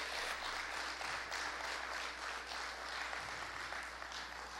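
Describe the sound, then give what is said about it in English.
Sustained crowd applause, a dense wash of many hands clapping at an even, steady level for several seconds, with no voices standing out above it; a morning hand clap given for the Lord. “Give the Lord a great big hand clap this morning.”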